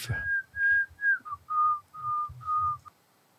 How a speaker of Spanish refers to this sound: Y acá está con Jingle Bells. Whistling. Silbando.